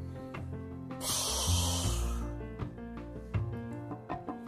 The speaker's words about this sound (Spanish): fueron al parque Pancho, Tobías y Sparky y vieron que era un meteoro que se abrió haciendo un ruido como de olla de presión.